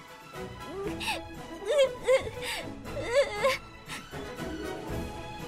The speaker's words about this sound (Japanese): 泣くばっかで話聞いてくれないまだ子供だしな